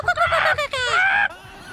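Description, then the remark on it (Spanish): A person's voice imitates a chicken, making a quick run of nasal, clucking squawks that rise into a drawn-out cackle, fairly loud, with no other talking. “y, también estaba también una gallina.”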